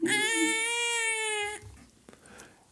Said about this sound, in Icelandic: Þarna heyrðum við í eh, nýfættu barni